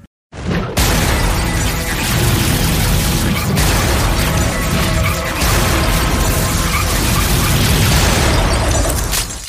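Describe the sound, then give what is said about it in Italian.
Loud, dense video game rock music driven by heavily distorted guitars, a thick wall of sound that starts abruptly and keeps pounding without a break, with no voices over it. “sentiamo un po' di musica del gioco, eh?”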